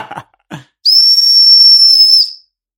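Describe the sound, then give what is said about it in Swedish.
A rape alarm whistle is blown hard: one loud, piercing, steady shriek lasting about a second and a half. Two brief soft rustling knocks come just before it. “ja, det var en våldtäktsvisselpipa här.”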